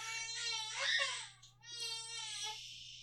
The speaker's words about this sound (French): Et visiblement, mon fils pleure. Ton fils n'est pas d'accord avec ce box-office.